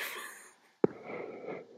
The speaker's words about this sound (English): I think your nose is whistling